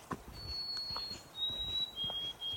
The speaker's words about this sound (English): Just then I hear the lovely descending melody of a white throated sparrow, perhaps my favorite of the birds in my Northwoods world. His gentleness feels encouraging.